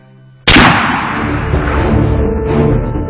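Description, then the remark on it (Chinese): A single loud gunshot, fired by a young Japanese man at Li Hongzhang's sedan chair from less than two meters away on 24 March 1895, cracks out of a quiet, low hum. A long, rumbling, booming echo follows and lingers for several seconds without fully dying away. No one speaks. “当他的座轿行至勤馆附近时，一名日本年轻男子忽然从人群中闪出，在离轿不到两米的地方举枪射击”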